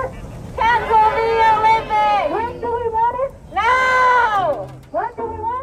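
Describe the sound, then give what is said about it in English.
Protesters outside an empty Olympic stadium chant together in long, drawn-out rhythmic phrases, voices rising and falling in unison with short pauses between, sounding fairly loud. “where you could hear the people chanting because there were no fans in the stands.”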